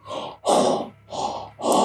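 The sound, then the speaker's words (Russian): A voice imitates a masked video game character's heavy, muffled grunts and breaths through a helmet: four rough, strained bursts in a steady rhythm, alternating louder and softer, fairly loud. “постоянно, да, то есть вот эти вот гулки и крики сквозь шлем, классно, на, на атмосферу работало потрясающе.”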